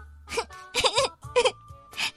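A girl cries loudly on her school graduation day in four sobbing, wailing bursts, each a strained, high-pitched voiced cry separated by short gasping breaks.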